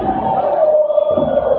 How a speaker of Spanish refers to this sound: Parece que el público de la Vita Argenta le empieza a despertar y ya empieza a animar. Gritos de Madrid, Madrid.